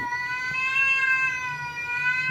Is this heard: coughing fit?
no